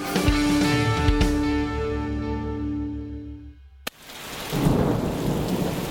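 A deep rolling rumble of thunder fades out, then after a brief click steady heavy rain comes in, a dense hiss of downpour with no voices.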